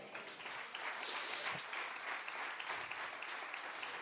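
An audience applauds the Lord during a church sermon. Many hands clap in a dense wash at an even, fairly loud level for the whole stretch, with no voices standing out.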